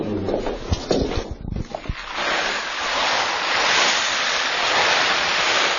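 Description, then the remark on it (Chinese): Dried soybeans rolled in a small winnowing basket make a rain effect, starting as scattered taps and rattles before swelling into a steady, hissing wash like a downpour, with no talking. “哦，下雨就是用这个黄豆在这个在这个小簸箕里，然后接着就说这下雨的声音啊。”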